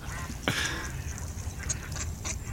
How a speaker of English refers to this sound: But I'm sure the ducks don't mind them. They're not eating them. Maybe they're fussy ducks.